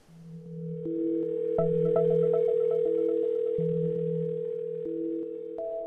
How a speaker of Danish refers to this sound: Det er det femte opkald i træk fra hemmeligt nummer. Jeg ved jo godt, det er dig, jeg gider ikke at tage telefonen, fordi jeg ved godt, at du er fuld og bare gerne vil fortælle mig, at jeg er en dårlig datter.